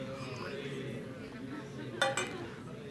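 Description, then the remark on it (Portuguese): Two quick, bright clinks of a glass sound in close succession as a preacher drinks water during a church sermon, over a steady low hum of indistinct voices. “Deixa eu beber água e você lembra aí para fulano servir.”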